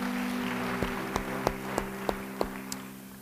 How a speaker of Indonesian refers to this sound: Terima kasih Bapa. Terima kasih Bapa. Terima kasih Yesus. Terima kasih Roh Kudus. Beri tepuk tangan bagi dia.